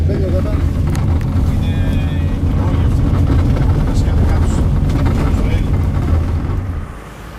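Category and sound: vehicle, car driving away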